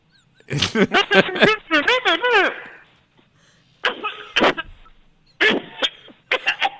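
A person coughs and hacks, with strained, throaty vocal sounds at first, then several sharp, harsh coughs spaced out over a few seconds.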